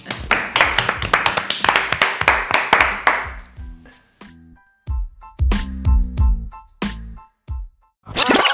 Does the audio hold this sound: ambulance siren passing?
no